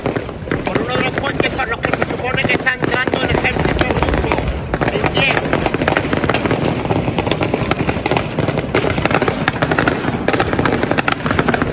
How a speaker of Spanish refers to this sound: Es continuo como se escuchan los disparos, los impactos metralletas. Y la persona que está, grabando va corriendo.